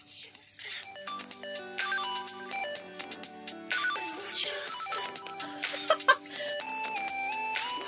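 A bright, bleepy chiptune-style melody that sounds like Super Mario music plays steadily throughout, with quick stepping square-wave notes over a light bass line, heard clearly and alone.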